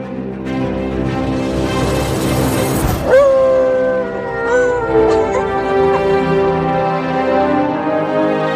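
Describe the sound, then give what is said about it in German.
A dog named Lulu howls loudly along as an orchestra musician plays the anthem, a sustained instrumental tune, its long wavering pitch gliding up and down over the steady music and occasionally breaking into yips. “Und bevor es losgeht, spielt der Manni, unser Orchestermusiker, jetzt die Hymne mit Lulu zusammen.”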